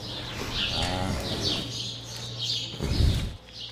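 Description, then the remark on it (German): A cow near the microphone, sitting the wrong way round and looking curiously toward it, gives a short, low moo-like call, then a loud breathy snort, over a steady low hum with birds chirping faintly in the background. “Wir haben, ihr habt vorhin schon bemerkt, dass sie falsch rum sitzt und äh, sehr neugierig zum Mikro rüberschaut.”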